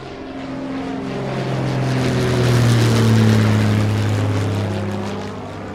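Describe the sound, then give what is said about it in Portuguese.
A propeller airplane drones steadily overhead, its engine hum and rushing noise swelling louder toward the middle before easing slightly, with no voices present. “E às vezes você tem que ficar mais, já que os aviões dependem de uma boa janela climática para poder voar com segurança.”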